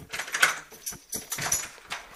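Keys jingle and clink in a few short, bright bursts, with scattered metallic rattles and some rustling handling noise in between, no talking.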